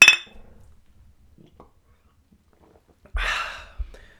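glasses clinking

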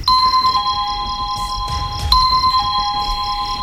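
doorbell ringing

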